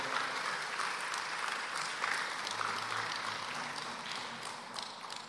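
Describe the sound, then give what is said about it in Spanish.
A church audience applauds for Christ during a sermon, a dense wash of many hands clapping at an even, sustained level for several seconds with no one speaking. “Denle a Cristo ese aplauso, por favor.”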